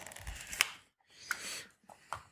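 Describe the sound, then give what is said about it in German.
A lens is twisted off the front of a camera body with an APS-C sensor: soft rubbing and scraping broken by a few sharp clicks, with brief pauses between the movements and no talking. “Ich mache jetzt mal den, das Objektiv vorne ab”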